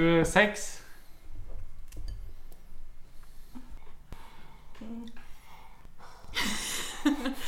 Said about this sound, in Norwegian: Kan du puste litt nærmere i mikrofonen?